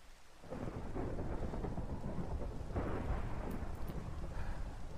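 A steady, loud downpour of rain fills the scene while deep thunder rumbles and rolls underneath, swelling around the midpoint, with no voices present.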